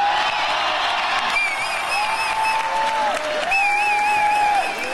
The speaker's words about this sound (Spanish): Hoy, mientras tanto, durante el segundo informe de la bancada de los senadores de un Movimiento Ciudadano recibieron a Samuel García al grito de presidente. Escuche cómo fue recibido Samuel García.